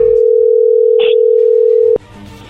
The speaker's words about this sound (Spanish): A ver, no se diga más, vamos a marcarle, no haga ruido, ahí entró la llamada.